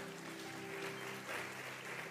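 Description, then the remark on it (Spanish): An audience at an evening church service claps their hands for the Lord in sustained, dense applause, even throughout, with a steady low keyboard or organ tone humming beneath it. “Dale palmas al Señor esta noche.”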